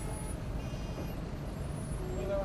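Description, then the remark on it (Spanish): The engine of a city bus with air brakes rumbles steadily and loudly, a dense low drone with faint high whines and a thin tone near the end. “Por ejemplo, mientras vas hacia el trabajo, sentado en el bus.”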